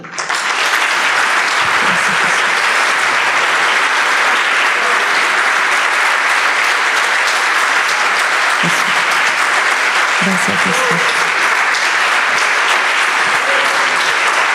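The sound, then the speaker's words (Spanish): An audience applauds Jesus in worship, eyes closed, steadily and loudly, a dense, continuous wash of clapping that holds for the whole stretch, with a man's voice briefly speaking over it. “Cerra tus ojos y empieza a aplaudir.”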